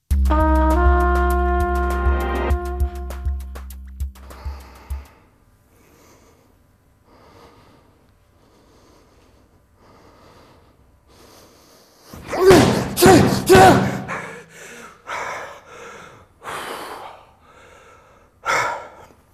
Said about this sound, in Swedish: Eh, ett baseballträ var det Ett baseballträ mm. mot en sån här hårdare kudde. Och det här handlar alltså om en sån här anger management eh, kurs eller en, en föreläsning som vi gick på.